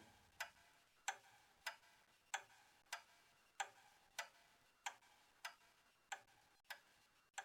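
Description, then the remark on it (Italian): A large Flemish clock in the corner of a room ticks steadily and unhurriedly, about a dozen crisp, evenly spaced ticks with nothing else heard. “Un grande orologio fiammingo in un angolo.”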